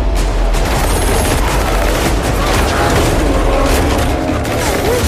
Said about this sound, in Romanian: Ăsta, fraților, după împușcături, cred că v-ați dat seama, e trailerul noului film cu James Bond.